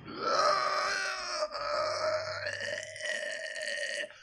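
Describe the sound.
A voice imitates the strained, drawn-out grunting and groaning of Neymar doing physiotherapy in the videos he posts, in a few loud strained bursts over about four seconds with no words.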